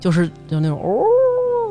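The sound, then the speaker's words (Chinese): After a few quick spoken words, a voice imitates a wolf's howl heard at night in a dense forest: one long, sustained tone that swoops upward and then holds steady, loud and clear for about a second. “然后晚上的时候是让我记忆特别深刻，听见狼叫了，”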